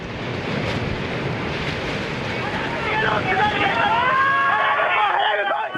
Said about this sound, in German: Nicht einmal eine halbe Stunde später rollen Tsunami-Flutwellen auf die Pazifikküste zu.